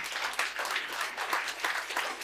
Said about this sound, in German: Und ich würde sagen, das ist ein Beifall wert. Vielen Dank.